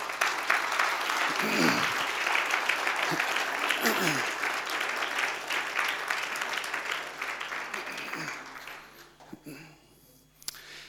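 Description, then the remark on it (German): Sustained applause from an audience, a dense wash of clapping that holds steady for several seconds before thinning out and fading near the end, with a few voices faintly mixed in. “Einen Applaus mal vielleicht.”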